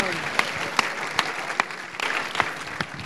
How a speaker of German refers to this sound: Ihr könnt ihm schon mal einen Applaus geben.